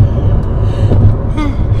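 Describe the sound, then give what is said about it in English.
A person yawns with a drawn-out, breathy vocal sweep over a steady low engine rumble, fairly soft against the constant background drone. “I just can't stop yawning today.”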